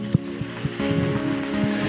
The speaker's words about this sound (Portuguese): Vamos aplaudir Jesus pela vida de vocês.